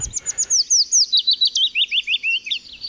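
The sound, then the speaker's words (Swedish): A willow warbler sings a fast run of high, thin, whining notes, about fifteen in quick succession, the phrase sliding gradually lower in pitch as it goes, giving a plaintive, falling feel. “Då brukar man säga så här att eh, den har en lite, så här, lite klagande, lite fallande strof som är lite, så här, lite, lite gnällig i tonen.”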